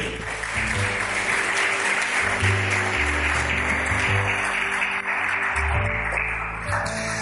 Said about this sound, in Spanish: Si te parece bueno, eh, y confirmamos estas palabras con un aplauso en esta noche.